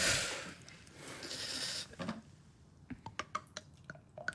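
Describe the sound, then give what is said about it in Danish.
A drink is poured with a steady hissing splash for about two seconds, followed by a series of light clinks and taps as the glass settles. “Nå, vi skal have noget i glæsset.”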